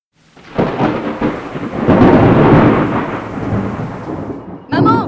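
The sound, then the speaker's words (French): A loud thunderstorm: a deep rolling rumble of thunder swells and fades over steady rain, then a sharp crackling burst hits near the end. “Marre des tempêtes, marre des coulées de boue, marre des inondations”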